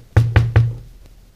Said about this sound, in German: ja, ich äh, klopfe mal. Ich höre nichts. An der Tür.